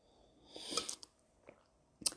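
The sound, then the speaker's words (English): A quiet slurping sip of a drink, followed by a few soft mouth clicks and a swallow, with no talking. “I gotta take a sip.”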